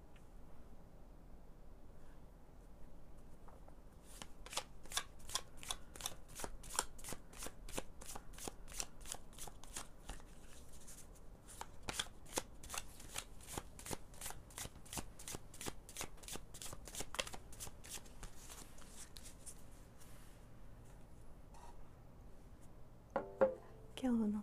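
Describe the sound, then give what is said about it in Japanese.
A deck of oracle cards is shuffled, a long run of rapid, crisp flicking and riffling clicks that pauses briefly midway, then resumes before fading out with a few soft rustles. “カードはこちらくま”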